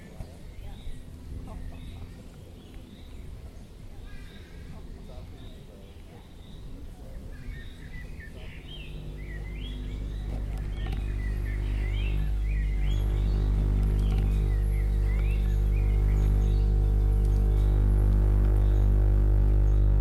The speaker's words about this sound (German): Ihr hört gerade Field Recordings, die wir selbst in der Hasenheide in Berlin-Neukölln aufgenommen haben. Vogelgezwitscher, Fahrräder, Gespräche.